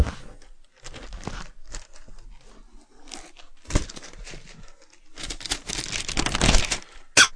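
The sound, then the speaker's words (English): Wrapping paper being torn open, crackling and crinkling in irregular bursts, building to a long loud rip near the end, with no voices. “Oh, you can hear oh, the um, paper crackling.”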